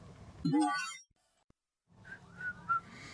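person whistling

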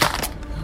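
mobile phone smashing

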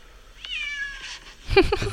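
cat meowing

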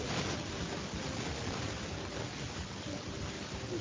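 electric fan whirring

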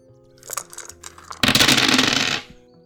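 dice being rolled

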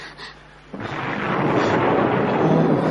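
thunder

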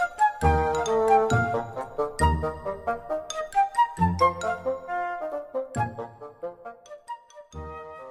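bells jingling

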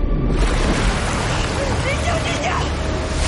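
rushing river rapids

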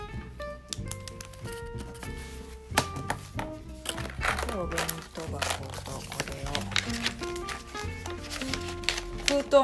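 paper

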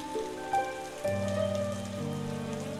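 rain falling

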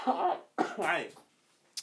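cough

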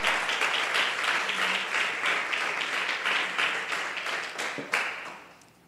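audience applauding

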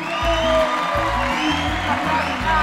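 applause and cheering

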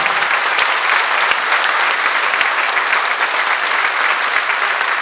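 audience applauding

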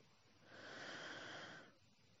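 deep breath

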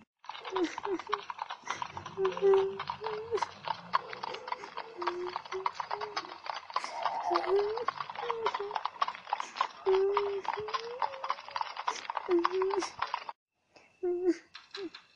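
horse hooves clip-clopping

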